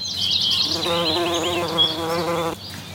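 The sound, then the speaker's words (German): Steady buzzing of insects such as bees, a droning hum with wavering pitch that swells for about two seconds, with faint high chirps in the background. “Um sie geht es in erster Linie, um Insekten und Vögel, deren Lebensräume in unserer intensiven Landwirtschaft immer weiter zerstört werden.”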